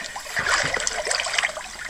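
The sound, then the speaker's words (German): Continuous water splashing and sloshing as someone wades into a cold pool in July on a very cold day, a busy watery churn that lasts about two seconds with no voices. “warum dieses plätschernde Geräusch? Wir sind tatsächlich, wann war das?”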